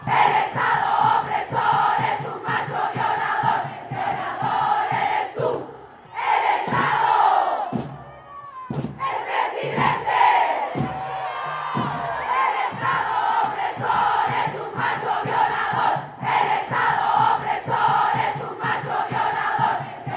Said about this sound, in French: C'est le refrain de ce slam écrit et chorégraphié par le collectif féministe chilien Lasthesis